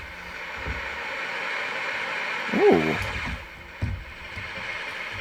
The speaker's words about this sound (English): That's pretty white noise. Thank you, everybody. Oh, that's applause. I, I was just going to say, rain.